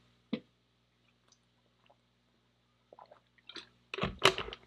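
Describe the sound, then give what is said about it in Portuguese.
Someone drinks water: a sharp click, a long near-silent pause, then a quick cluster of wet gulps and swallowing noises near the end, with no talking. “Deixa eu beber uma água aqui. Se você não sabe, nosso podcast é sem cortes, então assim, você vai me ouvir bebendo água.”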